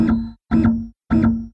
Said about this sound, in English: This is the sound of a gavel.